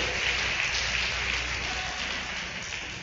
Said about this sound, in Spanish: Denle un fuerte aplauso si es para el Señor. Si es para mí, mejor no aplauda.